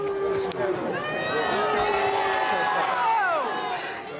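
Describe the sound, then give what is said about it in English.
A crowd of well-wishers in York shouts and calls out at once at a man who threw eggs at King Charles, at the unveiling of a statue of Queen Elizabeth II; overlapping raised voices form a loud, sustained clamour that swells briefly before easing off at the end. “crowd of well wishers shouted at the man as Charles mostly ignored the incident.”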